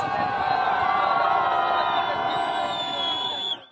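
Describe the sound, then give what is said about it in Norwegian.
A large crowd in Paris cheers as France's captain Hugo Joris and national team coach Didier Deschamps step off the plane, a dense roar of shouts, whoops and high-pitched screams holding steady and loud for several seconds before cutting off abruptly. “Slik hørtes det ut da Frankrikes kaptein Hugo Joris og landslagstrener Didier Deschamps steg ut av flyet i Paris.”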